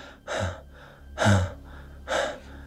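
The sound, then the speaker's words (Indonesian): A voice imitates the labored, panting gasps of a person who had collapsed: three heavy, breathy bursts spaced roughly a second apart, fairly loud, with no words spoken. “Dia udah sempat napasnya ngos-ngosan bang, terengah-engah.”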